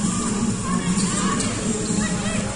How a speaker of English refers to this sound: So the Caps, well, Jess Bibby sitting down. That's what the cheering's for.